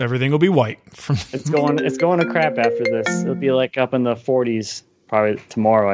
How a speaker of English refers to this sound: So I'm sorry about that noise. I'm sure you guys are hearing the incoming call. So my dad calls almost every day at the same time to to FaceTime with the kids